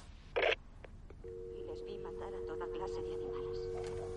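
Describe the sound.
A telephone handset is hung up with a short, sharp clunk, followed by a steady electronic line tone that hums on beneath faint, muffled voices.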